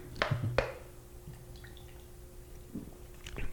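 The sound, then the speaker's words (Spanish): A sip of beer: a couple of sharp wet clicks and a soft liquid slurp, followed by a low steady hum and a few faint clinks near the end. No one speaks. “Sí, pues vamos dándole un traguito a la cerveza para recordar.”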